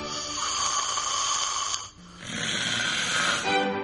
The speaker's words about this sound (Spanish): regresa nuestro tradicional concurso anual de ronquidos.